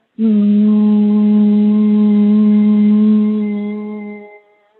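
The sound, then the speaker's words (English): A single long, steady hum from a human voice with the ears plugged from the inside, taken after a big breath through the nose, low and buzzing like a beehive, loud for about four seconds before tapering off at the end of the breath. “So basically, it sounds like a beehive.”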